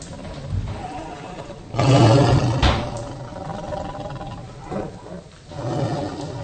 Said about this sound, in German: Äh, hast du einen Tiger in der Küche? Nee, mein Magen, ich hab Hunger.